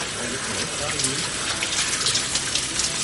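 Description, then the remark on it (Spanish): Shower water pours down in a steady, hissing rush that fills the whole clip at an even level, with faint, muffled talking briefly underneath early on. “Después apoya la cabeza en una de las paredes de la ducha mientras el agua sigue cayendo.”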